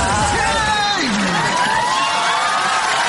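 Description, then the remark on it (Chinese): A concert audience cheers and applauds steadily for about three seconds, a dense wash of clapping and noise with a few high whoops and shouted voices rising above it. “谢谢， 感谢大家收听我的演唱会，谢谢你们的掌声，拜拜。”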